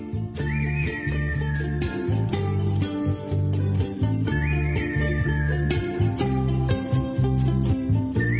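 A high whistled melody rises and slowly glides down, twice, riding over a steady full band groove with bass and drums. No one speaks.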